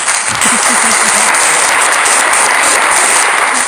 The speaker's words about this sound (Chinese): 大家给他们掌声好不好？嗯我来按一下，我这里就有掌声。